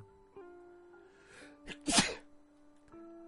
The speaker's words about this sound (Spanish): radio en vivo, non-stop, con estornudo incluido.